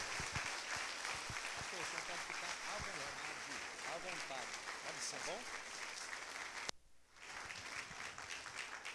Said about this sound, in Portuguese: Vamos recebê-lo com palmas para o Senhor Jesus, e ele vai fazer conforme Deus colocar no coração dele.